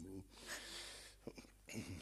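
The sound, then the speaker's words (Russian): A person who finds it hard to breathe and cannot inhale draws several strained, raspy breaths, each inhale hoarse and wheezing, with a brief voiced groan at the start and short gasping catches between the longer breaths. “Трудно дышать. Не могу вздох... вздохнуть.”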